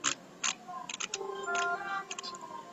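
A clock ticking sound effect: a series of crisp mechanical clicks, some spaced apart and some in quick clusters, over a soft tonal hum in the background.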